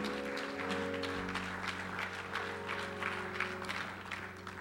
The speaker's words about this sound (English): If we're all content with where we are in Christ, give God one more clap and a praise. Thank Him for His goodness and His mercy.